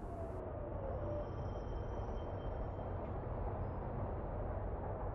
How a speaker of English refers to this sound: But there's the fucking train.